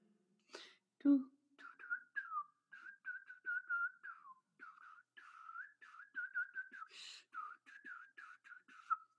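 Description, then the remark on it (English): A person tries to whistle, producing a string of short, breathy, wavering tones that keep breaking off, with airy puffs between the notes and no talking. “I can't whistle.”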